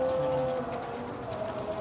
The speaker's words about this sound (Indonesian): bentar bentar bentar oh, hujan itu oh hujan hujan